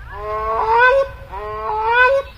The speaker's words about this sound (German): Eine Zeit lang sind es eher ganz tropische Vögel, zum Beispiel Kronenkraniche und die Saruskraniche, die unglaublich laut trompeten können übrigens. Also das ist dann schon recht exotisch, was wir dann hier hören.